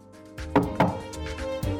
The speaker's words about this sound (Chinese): 就在这个时候，有人敲门。